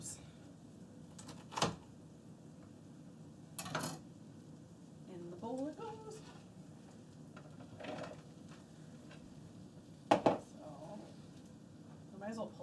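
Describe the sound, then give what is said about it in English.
A knife chops vegetables into small cubes on a cutting board, with a few sharp, irregularly spaced thuds and quieter knocks in between. Soft voices murmur in the background. “Alright, now we're, we're chopping these into a smaller cube.”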